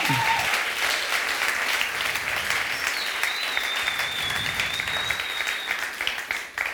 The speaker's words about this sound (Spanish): ¿Cuántos pueden decir amén y darle un fuerte aplauso a Dios?